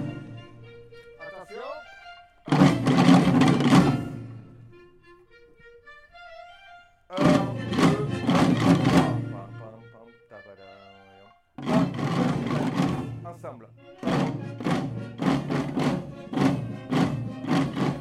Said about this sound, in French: tamborada, c'est un de ces sons associés aux fêtes de Bayonne, à l'identité de l'événement. Pendant la répétition, les passants s'arrêtent, tapent du pied, hochent la tête, fredonnent les airs.